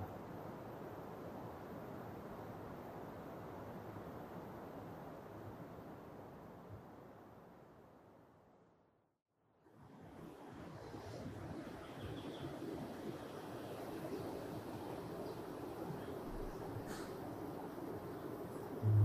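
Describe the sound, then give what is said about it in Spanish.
Steady rushing of river water, a dense continuous wash of noise that briefly fades to near silence midway before swelling back to full strength. No voices are heard. “Y luego siguen atentos del río que suena.”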